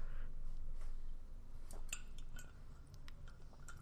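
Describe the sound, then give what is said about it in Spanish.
Someone drinking water from a glass: several light, bright clinks and taps of glass being handled, scattered irregularly over a low, steady background hum, with no talking. “Perdón que estoy bebiendo agua porque si no bebo agua cada 10 segundos, me, moriré en esta habitación donde estoy ahora mismo.”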